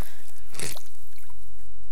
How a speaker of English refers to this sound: There is nothing wrong with this water. Like, I, I can drink this water. This is perfect water, you know.